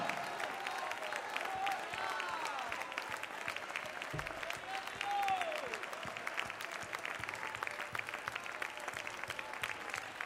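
An audience claps steadily, praising God for 30 seconds during a church service, in a dense, continuous wash of applause, with scattered voices calling out praise beneath it, sustained for the whole stretch without a break.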